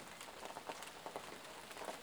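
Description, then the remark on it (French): Soft, steady rain patters continuously, a gentle hiss of countless small drops with faint irregular taps, quiet and even throughout with no voices. “Et c'est toujours cette pluie, la douce fraîcheur qui l'accompagne”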